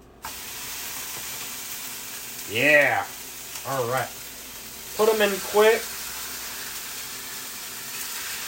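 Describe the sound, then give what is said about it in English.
Pork medallions sizzle steadily in a hot skillet after the heat was turned down slightly from very high, a continuous frying hiss that starts abruptly and holds throughout while a man speaks a few brief words over it. “Anywho, pork in the skillet. Right now, I just turned down the heat a little bit just because it was crazy high. Ready for sizzle.”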